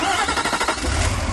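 A Cummins V8 turbo diesel engine in a 2016 Nissan Titan XD truck runs loud, a steady low rumble with a rough, chugging texture and a mechanical clatter, the low end swelling slightly toward the end.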